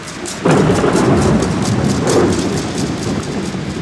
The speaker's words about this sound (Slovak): Dunivá rana hromu osvetlila svojim žltým jasom celú obývačku.